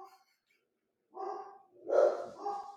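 A dog barks two or three times in quick succession, the barks moderately loud, with a short quiet pause before them and no talking.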